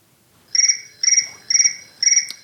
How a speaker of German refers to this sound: Oh, da schellt gerade das Telefon. Äh, einen Moment bitte.